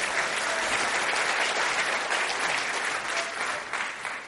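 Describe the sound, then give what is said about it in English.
A live audience applauds a volunteer joining the performer for a closing magic trick, a dense, even wash of clapping that stays loud throughout before easing slightly near the end. “A big round of applause for David, everyone.”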